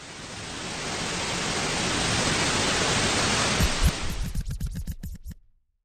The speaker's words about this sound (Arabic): ولكل اللي ما بيعرفوا شو هو صوت الضجيج الأبيض اللي حكينا عنه هذا هو